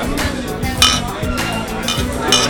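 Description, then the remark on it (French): Glasses clink together in a toast, several bright, ringing taps spread over a couple of seconds, with people talking and murmuring underneath. “Il faut qu'on trinque.”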